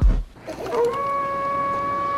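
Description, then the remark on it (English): A person imitates a wolf howl: a single long call that slides upward and then holds a steady, sustained tone for over a second, clear, with no talking. “He howls. He's lost his cherry. He's howling.”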